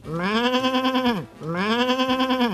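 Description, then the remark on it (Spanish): Two long, loud sheep bleats in a row, each a wavering, nasal baa with a rich stack of harmonics and a slight tremble, separated by a brief pause. “Pues Saludos, borreguito, tranquilo, borrego.”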